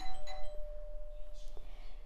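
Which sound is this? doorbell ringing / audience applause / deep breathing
doorbell ringing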